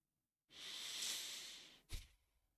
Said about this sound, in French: Je respire, je respire fort volontairement dans mon micro parce que c'est pas vrai. C'est pas vrai.